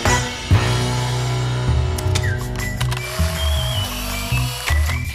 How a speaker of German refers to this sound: Könntest du bitte mal deinen Arsch hochkriegen und äh, den Jingle spielen, Neues aus Finnland und dann bitte noch Bild des Tages.